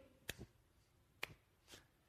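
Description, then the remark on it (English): A few scattered hand claps from an audience attempting to clap along: three sharp, faint slaps at uneven intervals, out of rhythm, with quiet in between and no talking. “yeah, you know what that sound is? That's clapping.”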